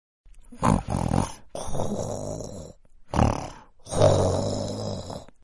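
Light snoring in four rough, rumbling breaths, short and long ones alternating with brief pauses between them. It is steady and moderately loud, with no talking.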